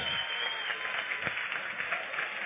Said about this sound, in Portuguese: Aplauda mais uma vez ao Senhor pela vida dessas meninas.